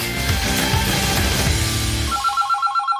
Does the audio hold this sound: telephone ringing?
yes